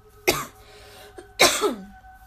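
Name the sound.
coughing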